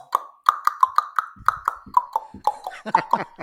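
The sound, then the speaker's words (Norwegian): A man slaps another person's thigh with a wet hand, water held between, in a locker-room shower: a quick, rhythmic run of wet smacking slaps, about fifteen fairly loud hits, each giving a hollow, plopping pop. “Han tok altså ja, eh, snabben sin, og så la han vann imellom, og så slo han ham på låret, så det hørtes akkurat ut som”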